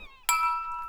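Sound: glasses clinking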